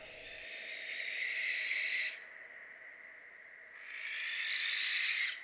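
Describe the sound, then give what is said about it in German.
An owl gives two long, harsh, breathy screeches, each lasting about two seconds with a short silent gap between them. The calls are fairly loud, with no talking. “Eule verweist auf die heulenden Rufe.”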